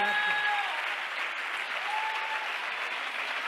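Steady applause from a crowd, a dense wash of clapping that holds at an even level for the whole stretch, with a couple of faint whistles rising above it.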